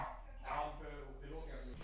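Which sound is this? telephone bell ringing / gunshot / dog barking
dog barking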